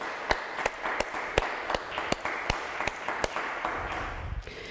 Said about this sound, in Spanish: Así que vamos a darle un fuerte aplauso a este día especial que es el número 8, Shemini Atzeret, y vamos a dar un fuerte aplauso.